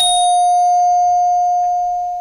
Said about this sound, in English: Now, how about this? if you play that bell five more times, it'll be three o'clock.